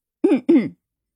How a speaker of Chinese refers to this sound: 闭上眼睛，故作深沉的咳嗽了两声。